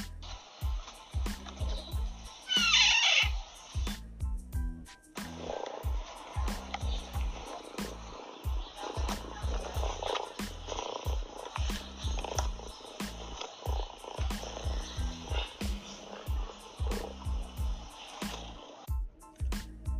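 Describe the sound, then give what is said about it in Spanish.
A fosa vocalizes in a steady, rhythmic series of low, pulsing purr-like grunts, repeated continuously, with a brief higher-pitched squeal near the start; no one speaks. “A continuación podremos escuchar un sonido del fosa.”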